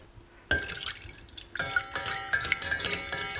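Liquid sounds of yeast being crumbled into lukewarm milk in a small pan and stirred to dissolve, with small drips, splashes and light clinks, starting after a brief quiet moment and continuing steadily.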